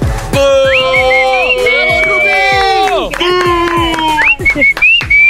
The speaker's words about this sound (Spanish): A ver, a ver, a ver, ¿por qué le chiflan así como rayándosela?